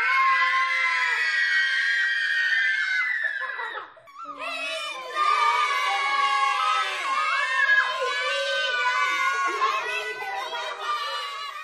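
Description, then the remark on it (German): A group of children shriek loudly and continuously with high, overlapping screams as they fly through the air in a high arc, breaking off briefly midway before another burst of excited shrieking carries on to the end. “fliegen im hohen Bogen durch die Luft und kreischen.”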